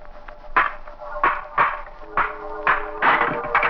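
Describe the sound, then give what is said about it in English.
A series of sharp, heavy metallic impacts strike in a rough rhythm, about six blows over a few seconds, each with a brief ringing tail, as a stone smashes an old rusty lock on a tomb door. “Smashed the lock.”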